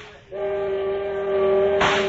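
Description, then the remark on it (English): A steamboat whistle, sounded by jerking its cord in the wheelhouse, blares in one loud, sustained screeching blast, steady, with a burst of hissing steam swelling in near the end. “grabbed the whistle cord and jerked out screech after screech, while with the other hand I held the wheel.”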